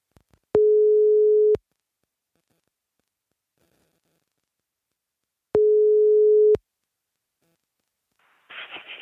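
A phone line rings out with two long, steady ringback tones about five seconds apart, clear, followed by a brief rustly noise as the line picks up; a caller dialling a museum's phone number found on its website.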